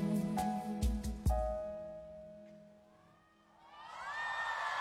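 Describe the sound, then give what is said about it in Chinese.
A live song ends with a few heavy drum hits and a held note, then a concert crowd swells into loud, high-pitched screaming and cheering that keeps building to the end. “啊，听到这个尖叫声就知道底下的反响应该是很激烈的哈。”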